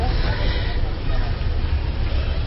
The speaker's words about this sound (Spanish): Hoy es día 23 y es por la mañanita y estamos aquí a las puertas de una cafetería en la misma Plaza de la Constitución, en la Lagunera Laguna,